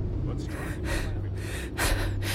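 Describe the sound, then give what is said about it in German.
A ship's officer, out of breath after rushing onto the bridge, takes heavy, rapid gasping breaths, several in a row with an uneven rhythm, fairly loud over a low steady hum in the background. “Er ist außer Atem.”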